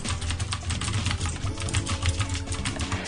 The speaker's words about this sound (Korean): 네, 저는 기계식 키보드를 씁니다. 요렇게요.